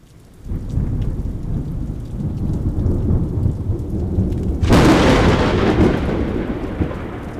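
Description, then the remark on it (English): A deep, rolling rumble of thunder from a night thunderstorm in Norman, Oklahoma, builds and carries on, then a loud burst of steady, heavy rain joins it partway through, filling the storm with dense hiss. “It was a stormy night, and the storm was so loud it rattled window panes and set off car alarms.”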